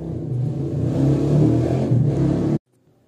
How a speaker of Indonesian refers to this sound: elah ada suara knalpot bentar bentar ya